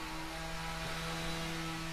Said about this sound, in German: Ah, da höre ich auch das Sägen. Wunderbar. Naja, live aus draußen. Köln.